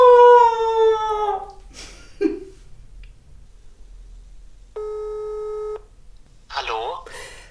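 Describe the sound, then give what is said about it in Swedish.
A single steady electronic telephone ringing tone of an outgoing call to a translator lasts about a second, clear. A drawn-out howling vocal sound comes before it, and brief voices follow. “Nu, vi ringer eh, översättaren.”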